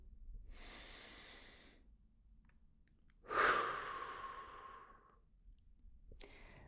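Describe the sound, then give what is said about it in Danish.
A slow, deep belly breath drawn in with eyes closed, then a louder, longer exhale, with a short soft breath at the end and no talking. “Og så bare lige tage en sådan rigtig god, dyb vejrtrækning ned i maven.”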